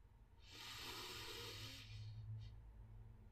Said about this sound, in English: taking a deep inhale